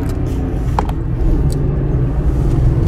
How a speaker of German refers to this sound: Und wir sind ja noch im Auto deiner Eltern unterwegs, weil unser Auto in der Werkstatt ist.